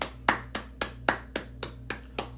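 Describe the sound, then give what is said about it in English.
A single person claps about eight times in a quick, even rhythm, each clap sharp and crisp over a faint steady low hum, with no talking, applauding the listeners at the close of a conference week. “I just again applaud”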